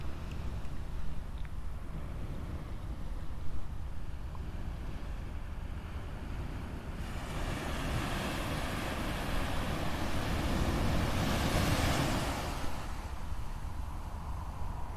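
Ocean waves wash ashore at sunrise on a summer morning in a steady, continuous roar, swelling louder about halfway through as a bigger surge breaks and hisses across the beach, with wind rumbling over the microphone throughout.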